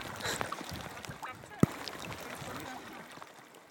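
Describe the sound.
Gulls call nearby, harsh squawks overlapping against a steady outdoor background near water, with one sharp knock partway through and faint voices underneath.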